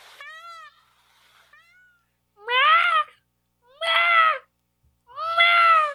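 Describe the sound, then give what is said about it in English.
A person imitates a peacock's call: a softer opening cry, then three loud, nasal wailing calls repeated at steady intervals, with no talking. “Did I do a good peacock sound?”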